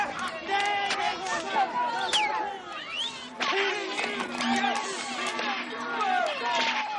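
A group of shepherds beside a herd of goats in the mountains shout angrily over one another, several raised men's voices overlapping in a loud, continuous clamor, with no pauses across the whole stretch.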